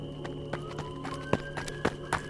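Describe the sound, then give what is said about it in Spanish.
Hurried footsteps of someone running along the other side of a train carriage toward the rear of the train, a quick series of about seven thudding steps, some sharper than others, over a constant low mechanical hum. No voices. “En eso, volvimos a escuchar los pasos justo del otro lado del vagón.”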